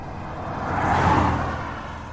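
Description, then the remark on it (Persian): A black Samand car whooshes past a gazebo at high speed, kicking pebbles up from the road, its roar swelling to a peak midway and then fading as it moves off. A single pass with no talking. “یه دفعه یه ماشین با هزار تا سرعت از کنار آلاچیق ما رد شد”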